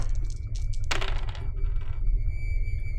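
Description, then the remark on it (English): Four dice clatter onto a hard surface in one short, bright burst of rattling, which fades into a faint ringing tail over a low steady background hum. No one speaks. “So just go ahead and roll four positive dice.”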